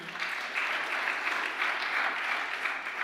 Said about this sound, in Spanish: El otro aplauso fuerte.